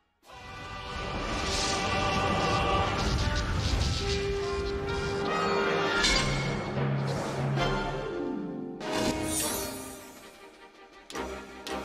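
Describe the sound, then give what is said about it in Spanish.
Loud, dense intro music of a video game from a franchise dating back to the Famicom, with sustained synth tones and heavy crashing, smashing effects, building steadily and ending in sharp bursts of noise, with no talking. “Y bueno, aquí vamos con el intro que vamos a, vamos a escucharlo, porque yo le tengo un cariño especial a ese intro.”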